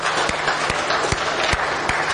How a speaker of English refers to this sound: And so can we just give God an applause that you're here right now? Can we do that?